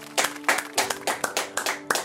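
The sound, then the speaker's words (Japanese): An audience claps together for Jesus in a brisk, steady rhythm, roughly four sharp bursts per second, with a faint sustained tone humming underneath and no voices. “今一緒にイエスに大きな拍手していきましょう”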